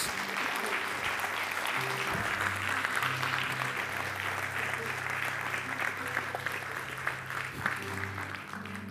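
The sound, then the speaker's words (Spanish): A church audience claps together as an offering of applause, steady and sustained for several seconds, a dense wash of many hands with a low hum underneath and faint voices mixed in. “Porque damos una ofrenda de palmas todos juntos?”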